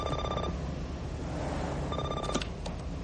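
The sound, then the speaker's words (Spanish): A telephone rings inside a car, two bursts of electronic trilling separated by a pause, heard over a steady low engine hum with no one speaking. “En el interior del coche suena el teléfono.”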